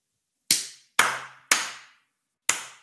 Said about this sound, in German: Hast du Publikum? Nein, ich habe nochmal geklatscht.